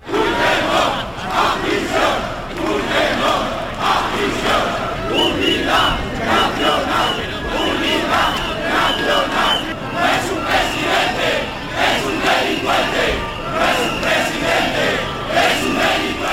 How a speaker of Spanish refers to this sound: Alrededor de un millar de personas han protestado en una convocatoria que con el lema No a la amnistía surgió en las redes sociales. Los manifestantes portaban banderas de España y lanzaron gritos como Pedro Sánchez a prisión o España es una y no 51.